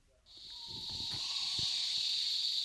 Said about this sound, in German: Der Regenwald von Danum Valley im Norden Borneos im malaysischen Bundesstaat Sabah. Dichtes Grün in typischer Stockwerkstaffelung, dampfende Luft, hungrige Blutegel. Ein Argusfasan ruft.